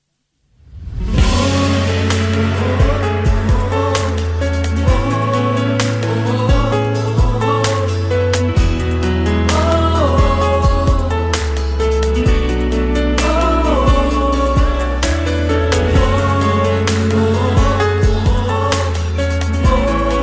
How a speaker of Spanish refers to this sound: Aquí está su nueva canción